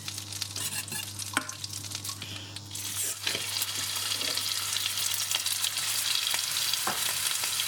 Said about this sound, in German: Wenn man das wahrscheinlich bindet, ist es nochmal dicker, aber so ihr hört, es brutzelt. Ähm, die Butter und das Öl ist jetzt in der Pfanne heiß. Wie gesagt, das geht hier in München immer sehr schnell, weil äh, Induktion.